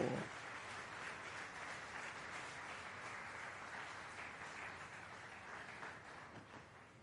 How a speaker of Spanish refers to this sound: Aleluya, démosle palmas al rey, hermano.